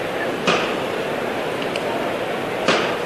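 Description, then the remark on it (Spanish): Two sharp hammer knocks, about two seconds apart, strike on a procession float carrying a Christ figure, signalling the bearers to lift it. Each is a crisp single strike standing out over a steady, hissing background murmur. “Y al tercero de, martillo en esa levantado”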